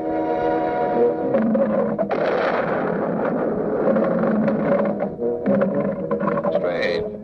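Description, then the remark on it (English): A long, guttural burp recorded by Foley and looped into a steady, throbbing drone as the comical motor sound of the pink submarine in Blake Edwards' film Operation Petticoat, repeating continuously like a chugging engine. It stays loud throughout, with no talking over it. “And so when Blake Edwards needed a comical motor sound for the pink submarine in Operation Petticoat, Foley supplied the main sound element by recording a big burp and then looping it.”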